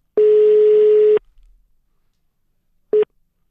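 A telephone ringing tone while calling a friend: one long steady electronic beep of about a second, a pause, then the start of a second beep cut short. Clear and fairly loud, with no one talking.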